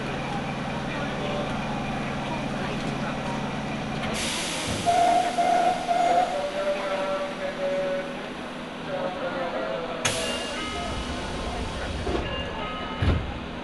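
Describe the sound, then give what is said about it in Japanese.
A Nagoya Municipal Subway Higashiyama Line train, bound for Fujigaoka via Sakae, Imaike and Higashiyama Koen, rumbles steadily along the rails with a loud, continuous roar and hiss, broken by sudden bursts of brighter noise and a few tonal squeals from the wheels. “耳で楽しむ鉄道旅 名古屋市営地下鉄東山線 高畑→藤が丘”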